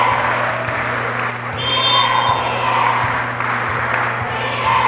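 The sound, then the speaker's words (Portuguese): A volleyball crowd cheers and shouts in a steady, dense roar that fills the whole stretch as Pinheiros scores its tenth point against Fluminense, with a thin high whistling tone rising briefly above it partway through. “Décimo ponto do Pinheiros, a galera grita.”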